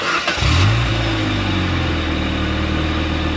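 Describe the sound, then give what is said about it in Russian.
A car engine running on Rolf motor oil cranks and catches, its pitch climbing in a quick rev before settling into a steady, loud rumbling idle, with no voices. “Так звучит двигатель, работающий на моторном масле «Рольф».”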